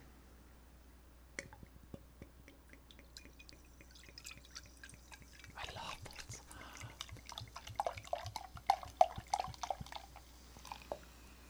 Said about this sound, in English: Yeah, pass me your glass. There you go. I will pour it for you.